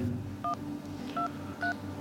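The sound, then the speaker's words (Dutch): Three short touch-tone beeps of a phone number being dialed, each a clear two-tone chirp, spaced unevenly over a steady low background hum. “En uh, ja, dat bel ik dagelijks. Zo even mee.”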